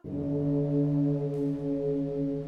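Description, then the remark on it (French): A deep, large bell tone swells in and hangs in the air, a steady, resonant low hum that holds at full strength for a few seconds without fading, with no voices. “Une grosse cloche se met à sonner.”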